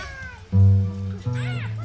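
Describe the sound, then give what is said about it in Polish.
A cat meows, a drawn-out cry followed by a second higher, arching meow, with a low voice murmuring underneath. “Kotek! Kotek, kotek, kotek, gdzie kotek, kotek,”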